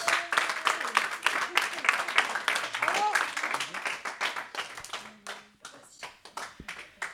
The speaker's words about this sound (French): On peut applaudir bien fort.